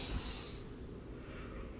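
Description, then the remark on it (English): A slow, steady inhale through the nose as a breathing check, a soft airy rush lasting a couple of seconds, quiet with no talking. “All you have to do is breathe in the roses”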